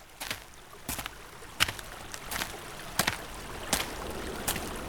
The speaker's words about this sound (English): Let's go back to the valley and say goodbye to the joyful bubbling of the springs and go back to the majestic River Tiber's flow in the heart of the Tiber Valley.